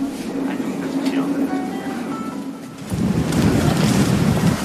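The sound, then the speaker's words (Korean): Steady sea wind buffets the microphone over washing waves at Mokpo New Port harbor, where many yellow memorial ribbons flutter in the sea wind, with a low droning hum underneath; the wind and surf swell louder and rougher in the second half. “목포 신항에는 세월호 참사 희생자들을 추모하는 수많은 노란 리본들이 바닷바람에 나부끼고 있었고 그 너머 저만치에 거대한 세월호가 보였습니다.”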